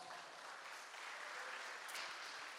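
An audience claps together to exalt Jesus in steady, continuous applause, a dense crackling wash of many hands that holds at an even level throughout, with no voices rising above it.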